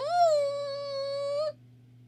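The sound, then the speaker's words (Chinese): A voice imitates an elephant's trumpeting call: one loud, sustained, high-pitched nasal blare that swoops up briefly, holds steady for about a second and a half, then cuts off over a low hum. “接着，…学大象的声音叫了起来。”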